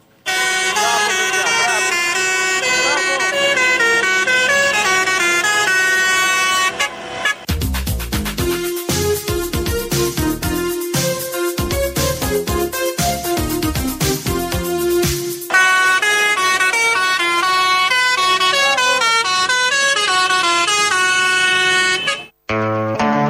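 A passing tractor's horn blares a loud musical tune of sustained, brassy notes, broken in the middle by a stretch of rapid, rhythmic percussive beats before the melody resumes.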